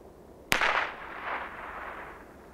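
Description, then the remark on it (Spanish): A single blank gunshot, fired as an archaeoacoustic test at a prehispanic settlement, cracks sharply out of near silence, then rings off into a long, fading echo that lingers for about two seconds. No one speaks. “Disparo de salva, prueba número uno, tres, dos,”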